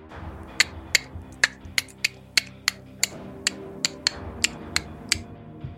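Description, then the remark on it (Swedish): A rapid series of sharp, crisp clicks, about sixteen of them, ticking at a fairly steady pace over a low, steady hum, with nobody speaking. “Är det klickande ljud vi hör eller? Flera stycken.”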